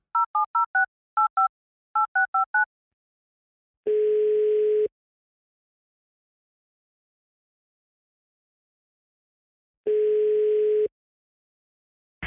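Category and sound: signal or alarm, telephone ringing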